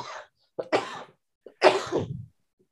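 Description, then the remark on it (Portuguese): A person coughs in two quick bursts, each a short catch followed by a harsh, breathy cough, fairly loud with brief silence between. “Bom, gente, desculpa aí a tosse.”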